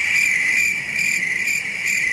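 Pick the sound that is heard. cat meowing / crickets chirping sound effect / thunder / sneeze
crickets chirping sound effect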